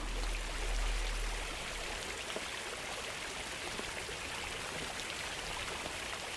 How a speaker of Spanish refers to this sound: Si te asomaras por la ventana o por la puerta de tu casa, observarías que la lluvia va un poco más rápido.